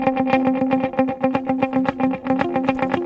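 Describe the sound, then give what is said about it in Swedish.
Electric guitar notes played in a steady rhythmic pattern, with a delay set to dotted-eighth repeats plus added quarter-note repeats layering extra even pulses between the picked notes, creating a dense, echoing cascade at a strong, consistent level with no talking. “Och nu lägger jag till fjärdedelarna.”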